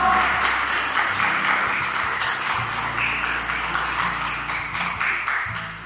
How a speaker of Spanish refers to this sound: Cuando le dan palmas al Señor en esta mañana, Él es digno de nuestra adoración.